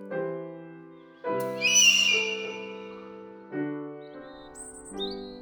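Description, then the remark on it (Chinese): A Chinese bulbul calls loudly toward the ground, a loud burst of bright, trilling chirps, then a few thin high whistles, all over sustained, swelling musical chords. No one speaks. “小鸠大声的向地面啼叫”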